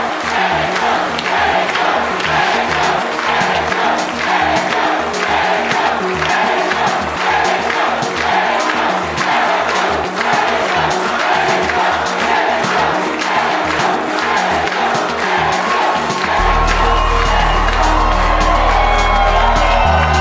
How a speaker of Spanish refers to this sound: con ovación de fondo, Bukele